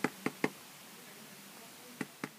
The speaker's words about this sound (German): Du musst dreimal klopfen